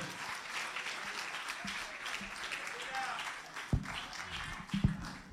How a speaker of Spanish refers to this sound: Amén, Señor. Amén. Un aplauso fuerte al Creador.